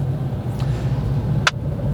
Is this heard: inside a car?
yes